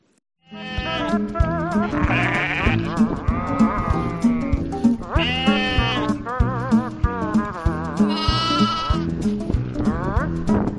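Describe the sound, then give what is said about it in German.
A sheep that had fallen into a pit and was pulled out bleats loudly and repeatedly, its wavering, nasal cries continuous, with several long drawn-out calls running back to back and no talking. “Also, falls ihr es nicht gesehen habt, das war ein Schaf, was sich in eine Grube reingefallen ist und rausgeholt wurde, befreit wurde, um zehn Meter weiter wieder in diesen Graben reinzuspringen und wieder rauszukommen.”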